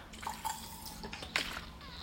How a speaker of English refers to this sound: Um, hold on, I gotta drink some water.